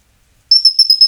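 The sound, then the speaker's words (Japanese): After a brief silence, a bright, high-pitched squeaky chirping starts up in rapid twittering pulses. It comes from a bird whistle: a screw inserted into a wooden cube and twisted, so that it sounds like birdsong. No one speaks. “それなんかネジがキュキュ言ってんじゃなくてこれ木のキューブに、えっ、と、ネジを差し込んで、回すことで、これが鳥の声に聞こえるんですね。”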